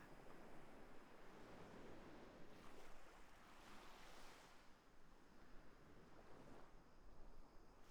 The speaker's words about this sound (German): Du hörst nur noch das leichte Rauschen der Wellen.